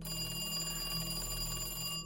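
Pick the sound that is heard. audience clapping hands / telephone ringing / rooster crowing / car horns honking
telephone ringing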